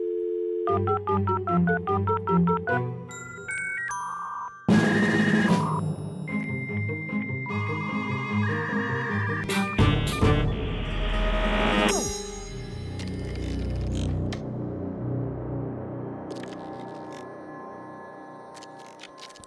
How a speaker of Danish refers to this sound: Det var, øh, det var lyden af et modem, et modificeret modem, et modem øh, tilføjet øh, lidt, lidt, lidt musik